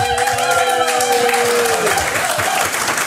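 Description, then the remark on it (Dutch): A studio audience applauds loudly and steadily for about three seconds, dense clapping with cheering or whooping over the top, welcoming Olympic judoka Henk Gol, just back from Tokyo, onto a TV show. “Let maar op, je krijgt applaus.”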